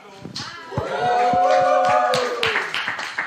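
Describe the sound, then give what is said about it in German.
A small studio audience at Marienstraße 11 makes noise on cue: a handful of sparse, uneven claps mixed with sustained cheering and whooping voices, fairly loud for about three seconds. “Ja, der Applaus ist noch akademisch.”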